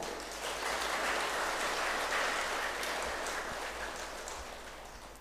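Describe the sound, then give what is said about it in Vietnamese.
Sustained applause from an audience at a talk on meditation, a dense wash of many hands clapping at steady strength for several seconds before gradually thinning and fading toward the end. “nếu quý vị thấy việc thực tập thiền là có kết quả và giá trị đó thì hãy dâng cao tràng pháo tay và cố gắng làm”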